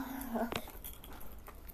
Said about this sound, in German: Keine da Ahnung, ist ein Hund.